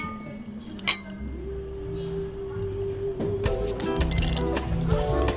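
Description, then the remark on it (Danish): Glasses clink together in a toast at a bistro, several light, bright taps scattered over a few seconds, with a low steady background hum and faint background noise. “Så øh, lad os skåle. Skål.”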